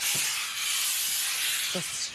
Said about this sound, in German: Mit was sprühen wir ihn ein? Einfach nur mit Wasser. Und dann glätten wir den mit dem Dampfbügeleisen.